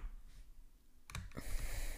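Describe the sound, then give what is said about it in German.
A quiet stretch gives way to a few sharp computer keyboard key clicks in quick succession as someone plays a video game, followed by a steady hiss of background noise; no one speaks. “Ich liebe meine Tastatur.”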